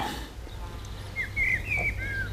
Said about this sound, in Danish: I kan høre fuglene synge. Der er buske, planter og udsigt.